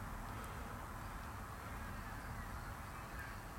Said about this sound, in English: I'm here in the hot tub. Ah. Uh, loving the sound of a little bit of traffic, loving the sound of all these birds,